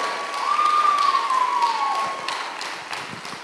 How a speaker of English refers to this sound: Let's give God about 10 seconds of praise in this place this morning. Come on, clap your hands. It's Palm Sunday.